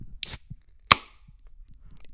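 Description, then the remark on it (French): The first beer bottle being opened to officially open the FME festival weekend: a brief airy hiss, then a sharp, bright metallic click with a short ringing tone, followed by faint low rustling and quiet handling sounds. “La première bière est ouverte.”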